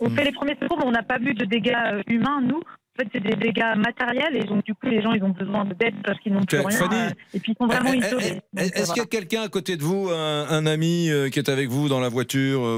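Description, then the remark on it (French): A voice speaking French comes through a thin, muffled phone line with a brief dropout, talking for several seconds before a clearer, full-sounding voice takes over and keeps speaking. “Parce qu'on va peut-être essayer de vous rappeler sur un deuxième téléphone parce que le ah, son, le son est vraiment pourri.”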